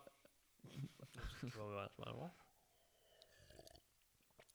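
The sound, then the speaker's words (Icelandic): Wet slurping noises from someone drinking, broken by a louder voiced, burp-like sound in the middle, then quieter sipping and slurping near the end. “Ég skal hætta að södra okay, okay.”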